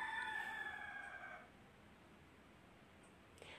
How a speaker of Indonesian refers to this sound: oke okay, abaikan suara ayamnya